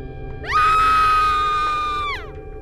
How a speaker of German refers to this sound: Um 8.50 Uhr hören Spaziergänger Schreie.